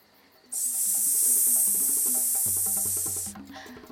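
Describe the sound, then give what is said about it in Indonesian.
A python's hiss, one long, loud, steady breathy rush lasting about three seconds before cutting off, with soft background music playing beneath it. “Tiba-tiba ular piton itu bangun.”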